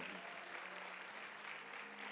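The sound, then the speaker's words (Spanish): An audience claps loudly and steadily for God, a dense wash of many hands filling the whole clip without pause, with no voices standing out. “¿Qué tal si ese aplauso puede ser más fuerte, pero para Dios?”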